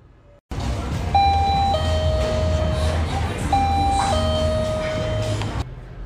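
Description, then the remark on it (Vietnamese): An electronic convenience store door chime plays a short two-note melody, then repeats it, ringing clearly over a steady low rumble of background noise. “Vâng, chính xác thì đây là tiếng chuông mở đóng cửa của sơ cục cây”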